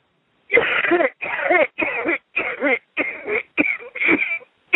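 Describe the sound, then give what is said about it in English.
A run of about seven deep, harsh coughs pushed up from the belly, one after another in a steady rhythm, loud with brief gaps between them and no talking. “I want you to take a deep cough and cough it all the way down from the belly.”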